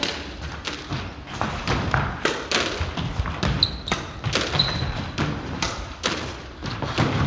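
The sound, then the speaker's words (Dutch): A squash ball thuds repeatedly against a wall in a quick, irregular rally, sharp dull impacts every half second or so, with faint squeaks of shoes on the court and no talking. “Zeg gewoon lekker aan het squashen.”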